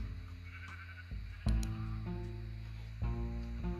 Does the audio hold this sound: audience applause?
no